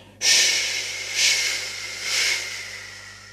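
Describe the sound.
A voice imitates a vacuum cleaner motor's suction hiss: a loud, breathy hissing that starts abruptly and swells twice more in rhythmic pulses, with no talking.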